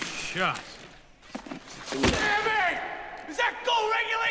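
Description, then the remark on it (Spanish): In a film scene, a sudden loud crash of a glass window breaking cuts through midway, followed by a bright scattering ring; voices can be heard shouting before and after the impact. “Ve, por ejemplo, ahí rompió el vidrio, pero no lo mató el tipo que estaba atrás el vidrio.”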